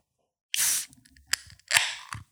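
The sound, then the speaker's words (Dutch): A can of triple IPA beer, brewed and canned in Groningen, is cracked open with a sharp burst of fizzing hiss, followed by small clinks and rustles, then a second shorter gush of hiss near the end. No one speaks. “Kun jij eens aangeven, wat is nou eigenlijk triple IPA? Dat klinkt trouwens zo.”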